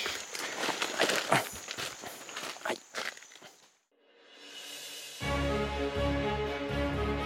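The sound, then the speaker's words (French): Footsteps crunch and rustle through forest undergrowth in a steady walking rhythm for a few seconds, while tracking a Psalmopus spider. After a brief silence, music begins. “On est toujours dans la forêt, pour ceux qui ont écouté la partie 1. Et on marche”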